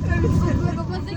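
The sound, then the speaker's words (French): Passengers chatter in an indistinct babble inside a moving bus carrying a school Latin class to Italy, with a steady low engine rumble underneath, fairly loud throughout the short stretch. “La classe de latin du collège du Septentrion part en Italie en bus.”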